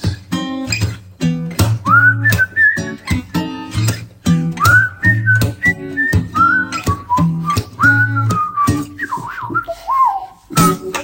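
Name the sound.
person whistling a tune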